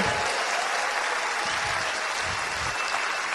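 An audience breaks into steady applause for those who attended the convention, a dense wash of many hands clapping at a constant, fairly loud level throughout, with no speech over it.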